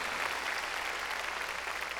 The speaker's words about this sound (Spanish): Démosle, démosle palmas fuertes a nuestro Señor. Gloria a Dios.